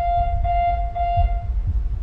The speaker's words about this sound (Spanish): De entre todas las cosas que se pueden observar, llama la atención la activación de esta alarma.